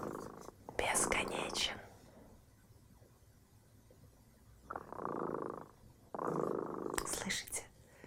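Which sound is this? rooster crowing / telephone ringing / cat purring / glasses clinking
cat purring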